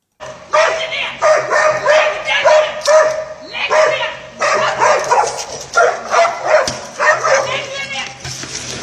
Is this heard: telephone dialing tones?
no